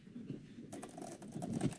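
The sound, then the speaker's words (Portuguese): A rapid run of small mechanical clicks from keys tapped on a keyboard, mimicking an automated phone menu, starts partway through and continues unevenly. It is fairly quiet, with no voices. “Eu achei legal a brincadeirinha do teclado aqui. Igual as maquininhas que você telefone e fala com elas.”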